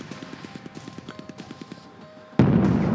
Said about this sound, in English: There were explosions all around us in the sea, and the shells and mortars were kicking up sand all over the beach. A couple of buildings were on fire, and the guns in our boat also joined in the barrage and deafened us.